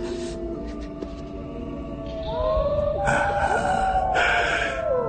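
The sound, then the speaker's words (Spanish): Several wolves howl together in Transylvania, long wavering tones overlapping and sliding up and down in pitch, swelling louder halfway through over a steady background hiss, with no talking. “Escúchenos. los hijos de la noche. Qué dulce música, ¿verdad?”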